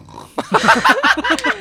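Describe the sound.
A voice mimics the snoring of a slightly heavy film extra who fell asleep lying on the ground on a hot day during a shoot: a fast, steady run of about ten throaty, snorting pulses, loud and evenly spaced, sounding almost pig-like, with no other talking.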